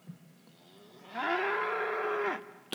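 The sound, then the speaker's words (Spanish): A dairy cow lets out one long, loud moo that swells quickly and holds steady before cutting off, with no voices and only faint background noise around it. “No, yo estoy hablando de una vaca lechera, le regaló Madison Garden.”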